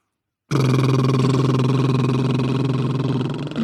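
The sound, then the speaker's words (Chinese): A steady voiced lip trill done as a vocal warm-up in a singing lesson, lips closed and relaxed while exhaling, buzzing on a held low pitch for about three seconds, a continuous fluttering drone with a rapid rattling pulse, sounding alone after a brief silence. “打嘟噜一定是在建立在我们正常的呼吸的基础上，正常的呼吸，然后我们正常的吐气，我们嘴巴闭紧，然后放松的吐出来，嘴巴就会自然的震动。”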